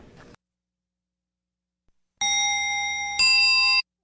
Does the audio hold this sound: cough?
no